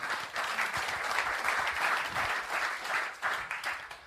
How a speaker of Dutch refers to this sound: Voilà, en daar zit ze al. Geeft u ook haar maar een applaus.